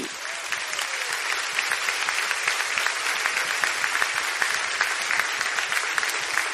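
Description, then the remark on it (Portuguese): An audience breaks into sustained applause after a prayer, dense overlapping claps forming a steady, fairly loud wash that holds evenly for several seconds with no one speaking. “Uma salva de palmas, querido.”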